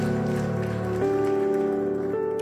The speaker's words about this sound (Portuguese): Pode aplaudir o Senhor.